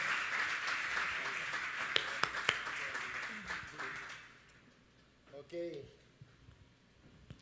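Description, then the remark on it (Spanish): A crowd applauds to welcome a guest and his family, with dense, steady clapping and a few sharp louder claps, fading out after about four seconds, followed by a brief voice. “Así que otro aplauso”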